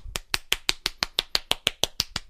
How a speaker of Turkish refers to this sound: Ondan sonra da alkışlayacaksın kendisini. Çok güzel yakaladı çünkü çelişkiyi. O yüzden alkışlıyorum.